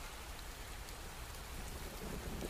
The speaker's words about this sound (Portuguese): O vento derrubava tudo e enormes pingos de chuva começavam a cair. Corri para minha casa toda animada. É de lá que eu gosto de escutar o barulhinho da chuva dançando no telhado.